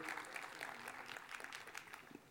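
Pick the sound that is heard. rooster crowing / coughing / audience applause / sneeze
audience applause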